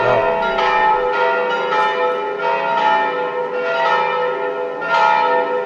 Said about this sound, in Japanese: 教会のこれ、鐘の音だと思うんですけれども、これはどこですかはい、えー、これはあのローマの、えー、旧市街あの、まあ、中心部なんですけれどもそこにあのナボーナ広場という、まあ、観光地としても有名な広場がありまして、その近くにある教会の鐘の、えー、日曜日の正午の鐘の音を、えー、録音してみました。